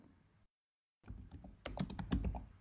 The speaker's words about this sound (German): Ich glaube, man hat meinen Tippen jetzt, aber ist mir ganz egal.